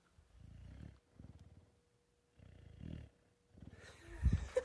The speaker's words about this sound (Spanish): ya, perdón, es que el perro está roncando.